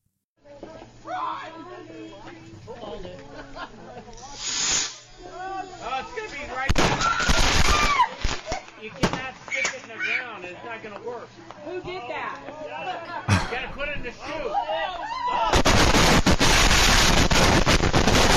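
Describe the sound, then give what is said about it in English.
Loud firework explosions burst out irregularly amid excited shouting voices in a fireworks accident in Nebraska. A stash of fireworks in or beside a car then ignites into a sustained, roaring barrage of crackling blasts that continues to the end. “Here's a friendly reminder do not light your aerial fireworks upside down, as I think they did in this case.”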